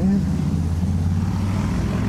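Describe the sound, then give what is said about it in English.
A motorcycle engine drones as it goes by, a loud, steady low rumble with a buzzing hum that holds at a constant level throughout. “Unfortunately, as a motorcycle goes by,”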